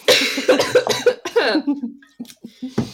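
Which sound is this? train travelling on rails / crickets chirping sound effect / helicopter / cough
cough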